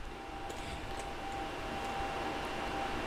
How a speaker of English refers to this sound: Uh, uh, excuse me. I apologize for the extra noise in the background. I was required to turn on a couple of fans here in the studio